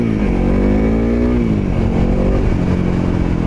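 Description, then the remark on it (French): A small Honda CRF 300L trail motorcycle engine revs up and holds a steady, buzzy drone, its pitch rising and falling slightly, loud throughout with no one speaking. “Allez les amis, je vous emmène au guidon d'une moto étonnante, un petit trail Honda CRF 300L.”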